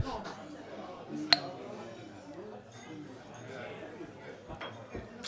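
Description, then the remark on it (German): A single sharp, bright clink of glasses rings out once in a toast, amid overlapping voices and faint clatter of dishes in the background. “Apropos zum Publikum, das hier ist eine Fedelskneipe und äh, Prost an dieser Stelle.”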